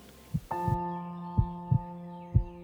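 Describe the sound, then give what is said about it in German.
A slow heartbeat thumps in soft, low paired beats, repeating steadily, while a sustained ringing tone hums beneath it after the first beat. “Und je mehr du die Stille wahrnehmen kannst, umso mehr kannst du erst ganz leise, dann vielleicht immer deutlicher deinen Herzschlag hören.”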